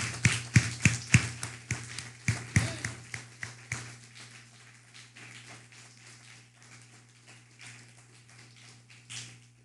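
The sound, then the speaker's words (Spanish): An audience applauds the Eternal (God) in a loud burst of sharp, crowded claps that thin out after a few seconds into scattered, quieter claps, with a steady low hum underneath. “Un fuerte aplauso al Eterno.”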